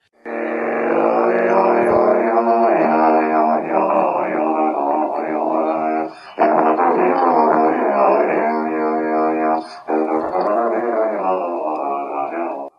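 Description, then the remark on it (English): Tuba multiphonics: a player hums and sings into the horn while playing, producing a thick, buzzing chord of layered tones that holds steadily loud, with two brief breaks. “Multiphonics can actually mean lots of different things, but in this instance, it is a person playing a tuba, and they are they are humming and singing into the tuba.”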